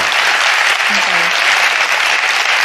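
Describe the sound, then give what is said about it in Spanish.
Steady, dense applause from an audience, a continuous wash of many hands clapping at an even loudness throughout, with a faint brief voice-like tone briefly underneath. “Vamos a verte un aplauso para ese clima de trabajo”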